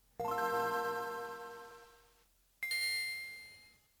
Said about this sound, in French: Ça c'est quand on allume la Game Boy Advance. Euh, j'aurais pu mettre juste le, le tilling là, de quand on a eu la Game Boy tout court. Mais bon, déjà ce son est plus, plus joli, il est un peu plus riche.